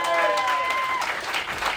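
Steady audience applause for the host, a dense wash of many hands clapping at an even loudness, with a faint sustained tone running underneath for the first second.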